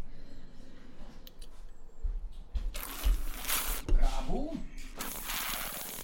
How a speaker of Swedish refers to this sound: Jag tar en till klunk.